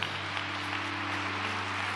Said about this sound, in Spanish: Denle un aplauso al Señor, por favor.